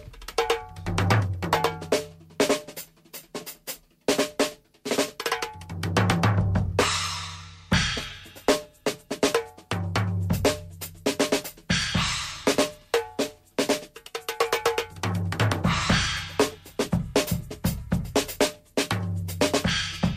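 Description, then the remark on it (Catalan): A drum kit played solo by drummer and percussionist Toni Pagès in a busy, driving groove: punchy kick and snare hits with bright cymbal and cowbell-like accents, loud, with brief washy fills, and no talking. “La bateria”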